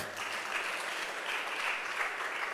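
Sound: audience clapping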